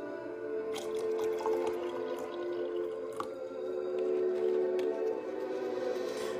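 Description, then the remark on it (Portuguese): Water pours steadily into a drinking glass as a little more is added, a continuous trickle with a faint ringing tone and occasional small splashes and clinks, with no voices. “Deixa antes eu colocar um pouquinho mais de água no meu copo.”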